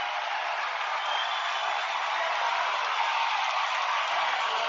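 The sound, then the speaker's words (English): A basketball crowd reacts with sustained applause after Coster blocks a three-point shot by White and White commits a foul, a dense, steady wash of clapping and crowd noise that holds at an even, fairly loud level throughout, with no clear voices standing out. “Well, I think the crowd has answered that.”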